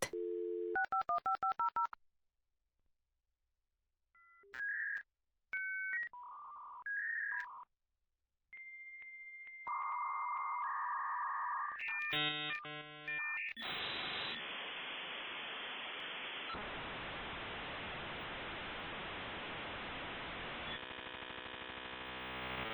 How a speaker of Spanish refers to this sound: Así era el sonido cuando te conectabas a Internet. Para muchos de nosotros es un sonido muy familiar, pero para muchos otros nunca en su vida lo habían escuchado antes. Ese sonido era felicidad porque significaba solo una cosa.